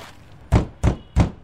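FBI agents knock three times, firm and evenly spaced, on the door of a house in a quiet suburban area, each a heavy, dull thud with no voices around them.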